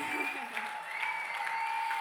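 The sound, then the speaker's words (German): Steady audience applause fills the whole moment, a dense wash of many hands clapping at an even level, with a faint sustained hum running beneath it. “Ich hoffe, der Applaus ist für Jesus ohne Witz.”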